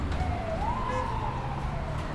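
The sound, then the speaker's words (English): Busy city street ambience: a steady, dense rumble of traffic with a fire truck siren wailing and rising in the middle, continuous throughout. “It's the sound of the city.”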